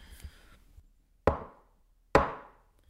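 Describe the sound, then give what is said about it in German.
Two sharp, solid knocks of the shepherd Josua's wooden shepherd's staff striking the ground, spaced under a second apart, each with a short decaying ring. A faint, brief rustle precedes them. “Der Schäfer Josua stieß schon wieder mit dem Hirtenstab auf den Boden”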